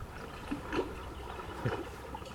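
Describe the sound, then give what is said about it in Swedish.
Small waves lap gently against a shore, a soft, steady wash of water with a few faint splashes at irregular moments, quiet, with no voices. “Den hör jag bättre på vågskvalpen alltså.”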